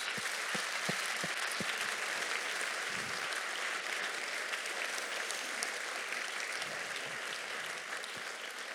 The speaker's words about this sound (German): Und deswegen mein ganz großer Dank an 280 ehrenamtliche Mitarbeiter. Gibt ihnen doch einmal einen großartigen Applaus